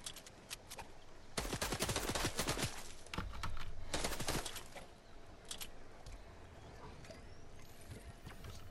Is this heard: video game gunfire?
yes